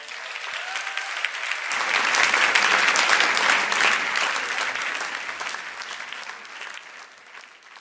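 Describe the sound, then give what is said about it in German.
Sustained applause from a crowd welcoming children as they come in for a baptism, dense rapid clapping that swells after a couple of seconds, holds steady, then gradually tapers off. No speech over it. “Ihr dürft sie ruhig mit einem Applaus begrüßen, wenn sie dann kommen.”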